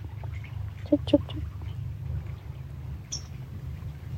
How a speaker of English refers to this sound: We'll sing with this bird, see what happens.